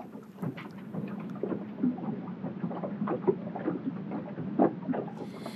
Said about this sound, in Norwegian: undersjøiske stemningen den styrkes jo av dette lydsporet som vi hører her, og som kommer fra en film der hun har ligget tidlig om morgenen og rett og slett filmet solspillet på veggen eh, mens vi hører vannet klukke under båten.